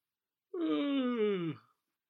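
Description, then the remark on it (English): A single long, drawn-out yawn, voiced, sliding slowly downward in pitch over about a second before trailing off into silence. “Davy Byrne's smile, yawn, nodded all in one.”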